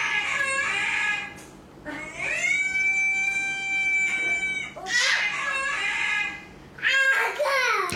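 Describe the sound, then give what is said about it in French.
A dog in an online animal video lets out a series of odd, high, drawn-out cries, strained and almost crowing or yowling, with several sustained wavering calls broken by short gaps. “Puis après, il tombe sur un chien qui pousse des cris bizarres.”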